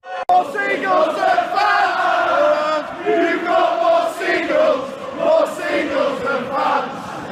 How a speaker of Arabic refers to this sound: وفي ديربي مانشستر في الايام اللي كان فيها لسه مانشستر سيتي فريق جالس يبني نفسه راح تسمع الهزوج الساخرة هذه اللي بيستعملوها مشجعين اليونايتد بحكم العدد القليل لمشجعين السيتي أيامها